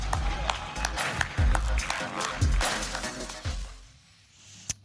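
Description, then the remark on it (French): A group, including Boris Johnson stepping outside, claps continuously for health workers, a dense patter of hand claps with scattered heavier thumps. The applause thins out toward the end, and one last sharp clap rings out alone. “quest ce qu'il applaudit d'ailleurs quand il sort là Qu'est-ce qu'il applaudit Il est en train de les, travailleurs de santé.”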